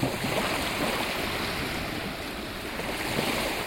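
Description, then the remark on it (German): Sea waves wash steadily onto a shore at night, where Albert Einstein takes walks, a continuous broad hiss of surf at a moderate level with no distinct breaks and no voices. “Bei seinen nächtlichen Spaziergängen am Meer wird Albert Einstein klar, dass es nach der Machtergreifung der Nazis für ihn nur noch einen Ausweg gibt.”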